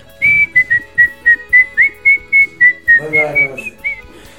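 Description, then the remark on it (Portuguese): A person whistles the folk melody Boi Barroso using two fingers, a quick run of short, clear, sharply pitched notes in a steady bouncing rhythm, with a brief murmur of voices underneath near the end. “Eu, eu, eu assobiava o boi barroso, e só com os dois dedinhos assim”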